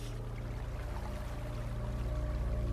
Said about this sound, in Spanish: Una fuente de tres caños por los que brotaba agua transparente se divisaba en el rincón del jardín.